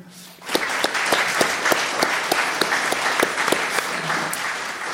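A live audience bursts into applause after a brief quiet start, with steady, dense clapping and a few sharper claps standing out, sustained at a fairly loud level to the end.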